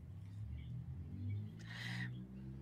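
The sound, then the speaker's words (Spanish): Street traffic: a low steady rumble of cars with one brief swishing pass midway through, in an otherwise quiet moment with no talking. “Escucho los carros y el silencio.”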